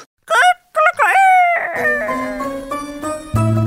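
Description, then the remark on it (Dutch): A rooster crows loudly in a few short rising and falling bursts as the opening of the Dutch show Hanengekraai, then sustained musical tones with a deep bass line take over and continue to the end. “Hier is Hanengekraai”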